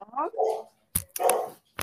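A dog barks a few short times, with a sharp, tonal yelp and brief clattering knocks between barks, moderately loud.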